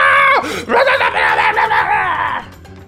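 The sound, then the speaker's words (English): A voice imitates a mitflit creature's high, strained scream as it splashes into the shallow end of the water, starting with a sharp pitch drop, then a wavering, shrieking wail that holds for about two seconds before cutting off. Loud. “mitflit splashes into the shallower shallower end of the of the water and just starts screaming.”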